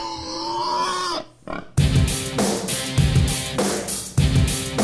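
A pig grunts and oinks loudly in a rapid series of rough, rhythmic snorts, opening with a brief higher, squealing call before the steady grunting takes over.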